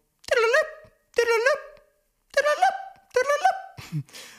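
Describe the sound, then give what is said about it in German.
A voice imitates a five-tone selective-call alert once sent over radio to alert rescue service vehicles, each vehicle having its own assigned sequence, singing a quick sequence of four or five short, sustained tone-like notes with brief gaps between them, fairly loud. “ganz damals, da wurde Rettungsdienst noch alarmiert über sogenannte Fünftonfolgen. Da hatte jedes Fahrzeug eine zugewiesene Fünftonfolge. Die klang dann so.”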